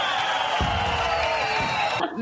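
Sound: crowd cheering wildly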